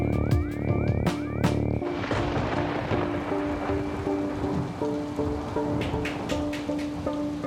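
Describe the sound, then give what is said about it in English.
Heavy rain, falling for four days straight, pours down in a steady, dense hiss after a brief burst of tonal music at the start, with faint musical tones lingering underneath. No one speaks. “And it's been raining for four days straight now. Heavy rain, just like I said.”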